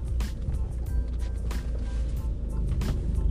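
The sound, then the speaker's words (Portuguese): A car drives along with a steady low rumble of engine and road noise, broken by brief rattles and muffled voices in the background, then stops abruptly, nearly crashing. “Caralho, parei bem perto Parei de quase que bati o carro.”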